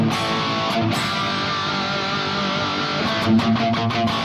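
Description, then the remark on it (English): An electric guitar plays with a light, gritty distortion, sustained chords ringing steadily, with a few brighter strummed accents near the end. No voices. “you know, there's a nominal amount of distortion on there”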